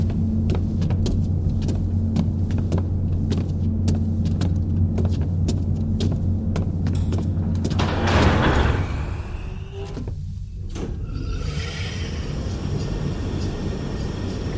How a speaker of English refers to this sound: We'll take the freight elevator. Follow me.